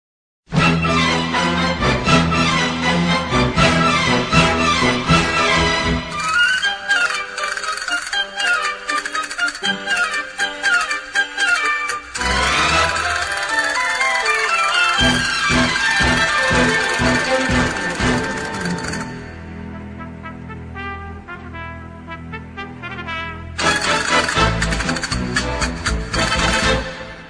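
A woman sings an Andalusian Spanish copla over full, loud instrumental accompaniment that plays continuously, easing into a quieter passage late on before swelling again.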